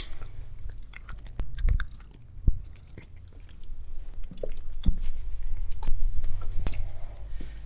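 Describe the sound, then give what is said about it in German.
An animal chews and smacks loudly on its feed, with wet crunching bites and sharp clicks repeating irregularly over a low rumbling background. “Man hört. Das Schmatzen.”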